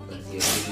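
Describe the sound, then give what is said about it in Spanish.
A single sharp sneeze bursts out, a quick breathy blast that lingers briefly while someone keeps talking. “Salud.”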